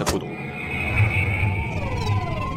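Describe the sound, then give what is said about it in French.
A car engine kicks in after a sharp initial click, then a steady motor hum with rising and falling whine as the vehicle pulls away, moderately loud with no talking. “J'ai à peine le temps de contourner l'habitacle qu'il démarre sur les”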